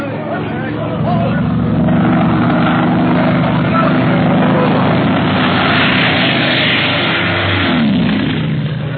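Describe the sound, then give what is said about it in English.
A propeller airplane roars loud and low overhead in a steep dive over a city, its engine droning steadily before the pitch sweeps down as it passes. Voices are faintly audible beneath the noise. “Is a madman flying that plane? Why is he making such dives and so low?”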